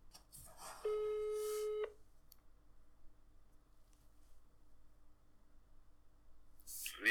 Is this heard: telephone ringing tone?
yes